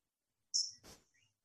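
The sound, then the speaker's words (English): A tui calls once: a bright, piercing whistle followed by a dry, rattling click and a few faint trailing notes, with no one talking. “It's oh god, I call it the 5 a.m. bird. Apparently, it's called a tui or ah, something.”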